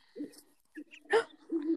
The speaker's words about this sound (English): Do you hear the owl? Oh my gosh.